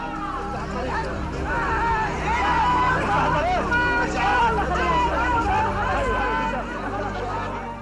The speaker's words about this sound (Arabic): هذه اصوات جموع الفلسطينيين في مخيمات اللجوء في لبنان يودعون ياسر عرفات ومن معه من مقاتلي المنظمه وهم يغادرون بيروت انه عام 82